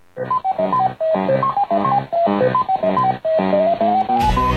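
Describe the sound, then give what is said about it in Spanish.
Bright retro arcade game music from a coin-operated maze game of eating dots while fleeing colored ghosts: quick beeping electronic notes in a bouncy melody, repeated in four short phrases, loud, ending with a brief burst of noisy static. “Ahora en el British Council, cursos de inglés para los que se gastaron todas sus monedas comiendo puntos mientras recorrían un laberinto huyendo de fantasmas de colores.”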